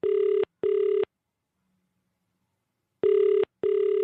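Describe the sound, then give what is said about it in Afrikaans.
A cellphone's ringback tone after a number is dialed and the green button pressed: two pairs of short buzzy rings with a long silent gap between them, steady and clear with no one speaking. “Nou moet ek net een van hierdie knoppies druk En dan die groen knoppie.”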